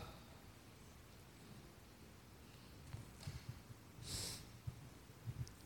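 Quiet sniffling after crying: one clear, breathy sniff stands out near the end, surrounded by a few softer nasal snuffles against a faint background hiss. No one speaks.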